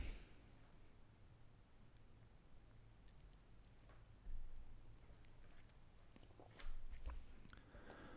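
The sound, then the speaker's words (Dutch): Quiet sipping of beer from a glass, with small wet mouth clicks and two brief, slightly louder sips or swallows against a low background hum; no one speaks. “We heffen ons glas. En de eerste keer in 2024 in de podcast.”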